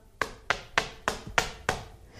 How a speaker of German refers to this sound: Ich klopfe an der Wand, wo der ähm, hinter sitzt.